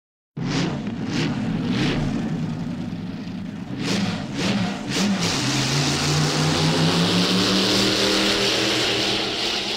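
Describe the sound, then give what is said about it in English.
Car engine revving sound effects in a beach car song: an engine revs loudly, with sharp bursts of throttle early on, then a sustained rising roar as it accelerates, filling the whole clip with no voices. “More vroom vroom sound effects.”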